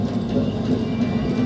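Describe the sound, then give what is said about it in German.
A steady, dense mechanical rumble of steam engines stationed on a town square, sounding at the 18th shot together with the local sirens, low and loud throughout, with faint clanking and ratcheting textures layered on top and no voices. “Beim 18. Schuss kommen die örtlichen Sirenen und die dort stationierten Fahrzeuge an die Reihe.”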